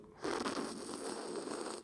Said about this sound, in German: Ähm, um damit ihr jetzt einen soundlichen Eindruck kriegt, schlürfe ich mal ein bisschen Kaffee. Ihr kennt ja diese unangenehmen Leute, die neben einem stehen und dann so.